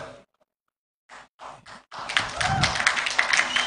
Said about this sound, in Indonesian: Ya, tepuk tangan untuk Sorben yang namanya baru diresmikan tadi malam.